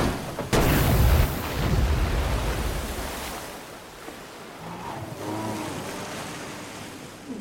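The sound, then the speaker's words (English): A car veers from the road, after a deer appears in its headlights, and plunges deep into an icy river with a sudden heavy splash, followed by loud churning, rushing water that gradually settles into a quieter, muffled gurgle and bubbling. “Suddenly, a deer is in the headlights, and Andrew grabs the wheel, veering them from the road and deep into an icy river.”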